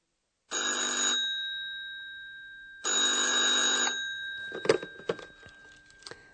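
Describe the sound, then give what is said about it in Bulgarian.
A telephone at the reception of Hotel Europa rings twice with a bright, trilling electronic bell, each burst about a second long and loud. A faint clatter and knock follow, like the receiver being picked up. “Малко по-късно доктор Тюрман се обажда по телефона в администрацията.”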